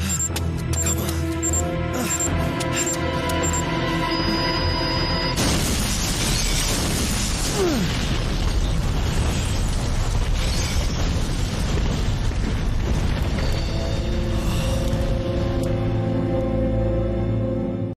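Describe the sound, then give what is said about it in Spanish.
A massive cinematic explosion from a video game cutscene, in which a hospital blows up after a countdown, erupts after a tonal musical intro, roaring with dense rumble and crackling debris for several seconds before settling back into sustained orchestral score. “los poderosísimos efectos de la explosión y, todo eso.”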